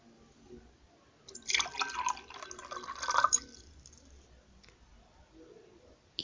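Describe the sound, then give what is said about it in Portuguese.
Water is poured into a glass to drink for about two seconds, a splashing trickle that swells and then stops, followed by quiet handling sounds. No one speaks. “Bebo uma água”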